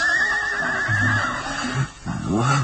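A horse whinnies loudly as its rider pulls the reins to stop it, a long wavering neigh that rises and trembles before breaking into a shorter, snorting call near the end.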